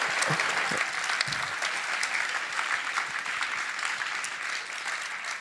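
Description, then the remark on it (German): Sustained audience applause for the addressee's team: a dense, steady wash of many hands clapping at an even loudness throughout, with no voices standing out. “Das ist für dein Team der Applaus.”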